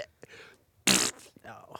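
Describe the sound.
Someone blows a single loud, short raspberry imitating an elderly mother's fart, about a quarter-second of sputtering noise, with murmured speech just before and after.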